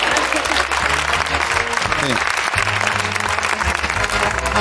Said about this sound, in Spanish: Bueno, si queréis aplaudir esto, sí.